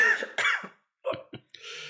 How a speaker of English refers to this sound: Oh, he, he, doesn't take to that too well. So after he, he, he takes a bit more than he should, he, he comes down coughing.